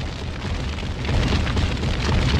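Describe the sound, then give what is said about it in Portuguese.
A loud explosion sound effect: a dense, roaring blast with heavy low rumble that stays strong and rises slightly for over two seconds, with no voices. “vamos estourar aí Estourar, Matheus, vamos estourar”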